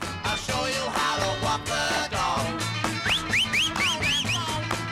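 A busy, full-band recording plays throughout, and in its second half a series of quick, rising whistled notes cuts through the mix, repeating in a bouncy pattern over the steady rhythm.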